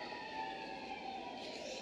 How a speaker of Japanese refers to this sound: また救急車だよね